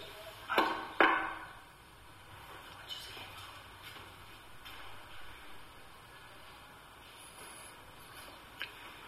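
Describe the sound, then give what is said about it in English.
Two sharp knocks in quick succession near the start, followed by a long stretch of quiet room tone with only a faint tick or two. “Can you can you knock like this?”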